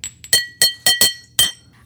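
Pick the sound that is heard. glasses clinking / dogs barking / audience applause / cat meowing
glasses clinking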